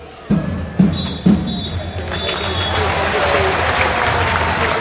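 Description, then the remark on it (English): A referee's full-time whistle ending the Exeter City versus Accrington Stanley football match sounds three short, shrill blasts in quick succession over crowd noise, which then swells into sustained applause and cheering. “And the referee blows the full time whistle and ends Accrington Stanley's struggles.”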